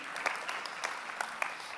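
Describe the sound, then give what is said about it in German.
Audience applause for the team that serves coffee, at a church service: a steady wash of many hands clapping, with a few sharper individual claps standing out, sustained at moderate loudness throughout with no voices. “Deswegen ganz herzlichen Applaus auch für unser Stehkaffee-Team.”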